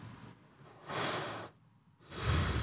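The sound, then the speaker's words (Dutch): Two forceful, noisy breaths drawn in through the nose during a breathing exercise, fairly loud, each lasting about half a second with a short pause between them and no talking. “Ja, en probeer eens te ademen met die tweede neus.”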